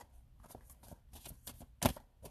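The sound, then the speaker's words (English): A deck of tarot cards being shuffled in a car, a series of soft papery riffles and flicks ending in a louder, sharper snap as the deck comes together. “I've been practicing shuffling though.”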